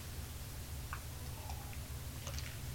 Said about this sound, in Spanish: Yo estoy aquí, eso sí, con mi cafecito ya servido y me voy a dar este primer buchito del día.